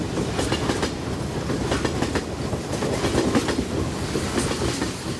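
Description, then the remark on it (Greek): A train to Paris rolls steadily along the rails with a continuous low rumble and repeated clickety-clack beats from the wheels, moderately loud, with no voices. “Κι έτσι, το 1903, μετά από οκτώ ολόκληρα χρόνια, να με με τις βαλίτσες μου στο τρένο για το Παρίσι.”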